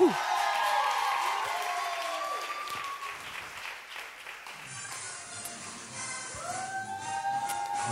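Steady, dense applause from a crowd fills the whole clip, mixed with cheers, whoops and a few rising, whistle-like calls, staying loud throughout.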